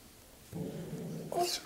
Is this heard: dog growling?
yes